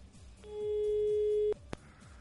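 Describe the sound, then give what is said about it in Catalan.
A steady electronic telephone line tone holds for about a second, clear and fairly loud, then cuts off with a sharp click against a low, rhythmic background hum. “No sé si podríem localitzar algú de Microsoft perquè ens ho confirmés això, també per telèfon.”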